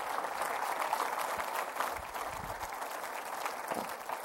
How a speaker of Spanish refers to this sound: ¿Cuántos dicen gloria a Dios? Le pueden dar una fuerte ofrenda de palmas, hermano.